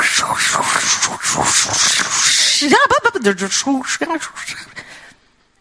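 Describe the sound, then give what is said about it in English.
A voice imitates an old car radio without automatic tuning being tuned by hand: a long hissing burst of static, then warbling, swooping whistles and choppy crackles before it cuts off into silence. “Some of you might have once owned a car that had one of those radios that didn't have automatic tuning.”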